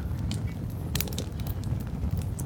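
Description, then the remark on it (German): A crackling campfire with irregular sharp pops and snaps scattered over a steady low rumble, fairly loud, with no voices. “Das muss da irgendwo beim Feuer sein, ne?”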